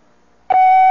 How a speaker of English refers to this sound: This is WOR New York, an RKO General Station. At the WOR time signal, exactly 8 o'clock,